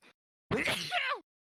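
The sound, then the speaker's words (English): A single loud sneeze: a sharp explosive burst followed by a brief voiced trailing sound, with a short faint noise just before and silence afterward. “Bless you.”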